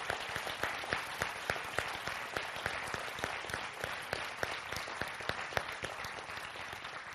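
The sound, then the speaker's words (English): A crowd breaks into sustained, dense applause for two ladies, many hands clapping at once in a steady, bright wash with a few sharper claps standing out, holding fairly constant for several seconds. “I think we need to applaud these two ladies right now before we go any further.”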